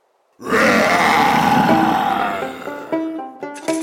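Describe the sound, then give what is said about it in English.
A stone lion lets out a loud, mighty roar that holds for about two seconds, rough and rumbling, then breaks into a few shorter, tonal growls as it fades. “The lion paused, fixed Uncle with its round stone eyes, then let out that mighty roar.”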